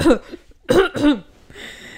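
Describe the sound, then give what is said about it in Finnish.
Three rough coughs burst out in quick succession from a person, followed by a quieter breathy rasp as the fit settles. “Anteeksi, nyt vielä yskittääkin.”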